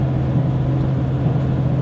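Onboard sound of an HC85 series hybrid train running on a trip to Kii-Nagashima, Japan: a steady, unbroken rumble with a constant low droning hum beneath, holding an even loudness throughout with no voices.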